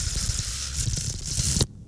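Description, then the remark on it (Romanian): A loud, airy slurp of the first sip of coffee this morning, a steady hissing rush with a low rumble lasting over a second before cutting off abruptly. No one speaks. “aud prima gură de cafeloi din această dimineață, Ia.”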